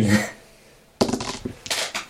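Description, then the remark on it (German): A twenty-sided die clatters across a hard tabletop, rattling in a quick burst of bright knocks that bounce and tumble for about a second before coming to rest, after a soft brief rustle and a pause. “Ich, ich glaube, wir sollten einen anderen Würfel nehmen.”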